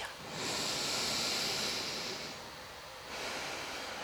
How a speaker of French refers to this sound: Donc on inspire, on expire. engagement des abdominaux, rétention, je détends le ventre et j'aspire le ventre. Je détends le ventre et j'inspire.